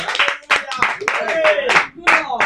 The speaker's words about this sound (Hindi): एक बार जोर से ताली बजाइए Amen.